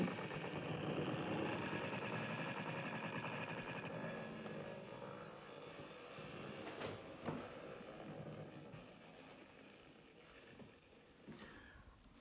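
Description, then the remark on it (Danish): A dense, hissing wash of synthesized white-noise-like sound, made by feeding a recording of a can rolling across a table into a synthesizer, grinds steadily with faint tonal bands and rough rattling texture, then slowly thins out over about twelve seconds. “Øh, men, øh, men ja, i princippet kan man putte alle lyde ind, øh, og det er spændende det her med, hvad der sker, når du putter lyden af en dåse, der ruller over et bord ind, og så lyder det som sådan, altså jeg ved ikke, et eller andet white noise.”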